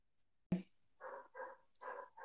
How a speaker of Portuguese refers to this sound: Aí o cachorro latindo, tá vendo? Pelo menos sozinha sem cachorro não vou ficar não, não vou ficar não.